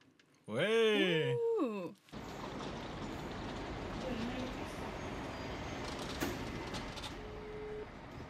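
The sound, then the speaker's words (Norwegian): A brief melodic tone plays, then steady engine rumble and road noise fill the space, the inside of a moving city bus on its way to Majorstuen, with faint murmuring in the background. “Um, jeg sitter på bussen nå.”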